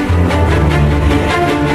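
Loud, sustained orchestral film-score music with deep droning bass tones and swelling rhythmic pulses, playing continuously with no voices.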